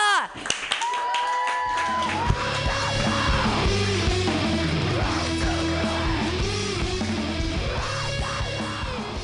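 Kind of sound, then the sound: crowd, audience clapping and cheering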